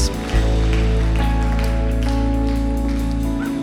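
A crowd applauds for Jesus after a prayer, with a steady, dense patter of clapping over a sustained, low instrumental chord that holds throughout, the overall level staying fairly constant.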